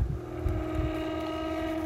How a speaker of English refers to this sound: sorry about that. Sorry about the noise, guys. My fan's struggling to come on